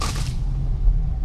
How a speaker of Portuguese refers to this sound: Isto é o som das folhas a baterem no carro porque o carro quase mal tem espaço para passar.